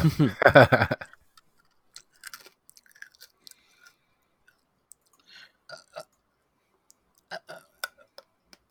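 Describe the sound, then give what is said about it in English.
Someone eating a cough drop: after a brief low voiced sound at the start, scattered wet clicks, smacks and small crunches follow at an irregular pace, fairly faint and with no talking. “That sounded tasty. I know. I was like, "Oh, did you have something, real?" Uh, cough drop.”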